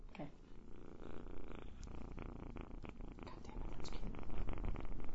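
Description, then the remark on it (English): A tiny five-week-old kitten purrs, a continuous low rumbling drone with a steady pulsing rhythm that grows slightly louder toward the end, with faint rustling and no talking. “complete with five week old kitten purring and um, yeah, basically everything else.”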